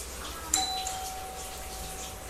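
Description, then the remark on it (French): A single ring of a front-door doorbell strikes sharply, then its clear tone hangs and slowly fades over the next two seconds against a faint, steady background hum. No voices. “La sonnette de ma porte à cette heure C'était bien ma veine qu'elle retentisse à cet instant.”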